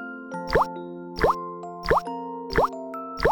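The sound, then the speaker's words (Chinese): Water drips from a kitchen tap in five evenly spaced plops, each with a quick rising pitch, over the steady low electrical hum of a refrigerator. “水龙头滴着水，冰箱也在响。”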